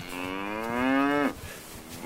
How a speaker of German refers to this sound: Ach, Kühe.